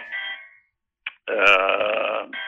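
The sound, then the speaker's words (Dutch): A phone rings in the background, its electronic tone sounding in a few bursts separated by short gaps, along with a lower rough, buzzy sound. Nobody speaks. “Zit iemand, iemand heeft jou nodig of zo, lijkt het op de achtergrond?”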